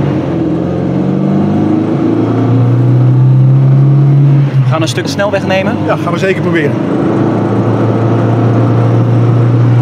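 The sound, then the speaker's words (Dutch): An old classic car engine drones steadily while driving. A faint metallic pinging knock sounds in its low hum, caused by fuel that is no longer suited to such cars. The pitch climbs a little partway through as people talk briefly over it. “Je hoort hem een beetje pingelen.”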